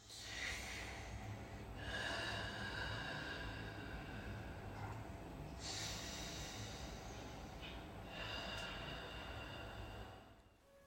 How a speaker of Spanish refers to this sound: Cuando bajé, todo estaba apagado, a oscuras pero escuché que alguien estaba respirando profundamente en la sala.